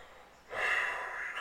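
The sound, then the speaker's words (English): A person imitates a single long, heavy breath, like a man breathing behind someone, a breathy, airy exhale lasting about a second, with no other sound around it. “like when you're in the elevator, hear that guy breathing behind you”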